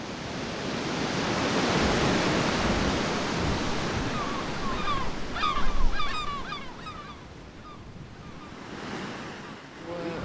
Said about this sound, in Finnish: É, isso é o, o mar e a ribeira tudo junto.